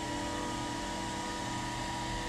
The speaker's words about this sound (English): Hair dryer. Hair dryer. On on low, just let it warm up.